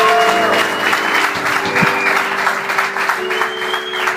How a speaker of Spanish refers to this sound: Dale Cristo ese aplauso.